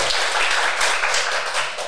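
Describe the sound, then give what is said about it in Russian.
A live audience in Rudi's bar in Tel Aviv applauds, genuine and not overdubbed: many hands clapping in a dense, steady wash of loud, crisp claps that holds for the whole moment, with no voices standing out. “Это не наложенные, не наложенные аплодисменты.”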